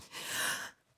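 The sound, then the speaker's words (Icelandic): A person imitates their mother's startled gasp of shock on seeing a very small baby in an incubator: one sharp, breathy intake of air, lasting well under a second before fading to near silence. “hún tók svona andköf Já. því henni brá svo það var svo lítill hann var svo rosalega lítill”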